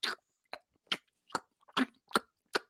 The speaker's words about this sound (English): I do not like people who have their mouth open while they're chewing. I have yelled at my own son for telling him to shut his mouth while he chews.